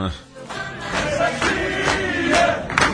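Manchester United football supporters chanting "We're FC" together in a loud, sustained roar of many voices, with drawn-out sung notes rising and falling over a dense crowd noise for the whole stretch.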